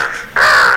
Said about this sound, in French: Voilà, quel oiseau fait ça pas hein. L'aigle, l'aigle, la colombe ou le corbeau Le corbeau, ah, voilà. Le corbeau,